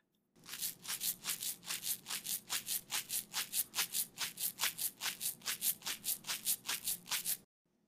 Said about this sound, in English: But rice hitting plastic creates a great rhythmic shaker instrument that can be just what you're looking for to throw the finishing touches on your track.